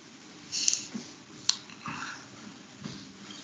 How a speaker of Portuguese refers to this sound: Acertou o lobo. Ele dá seu último grunhido e. Lobo grunhido.